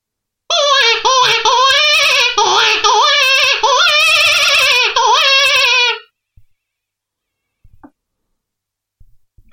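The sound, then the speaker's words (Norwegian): A loud, wavering squeal from a standard Red River Bandit hare predator call imitating a distressed hare, crying in continuous wailing bursts for about five seconds before stopping, followed by quiet with a few faint clicks. “Eh, da kan vi ta en sånn helt standard harefløyte som Red River Bandit. Det er et helt vanlig haraskrik.”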